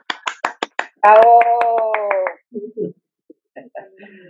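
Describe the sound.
A handful of sharp, evenly spaced hand claps for a friend, then the clapping continues beneath a loud sustained vocal cheer before fading into brief scattered voices and a few light taps.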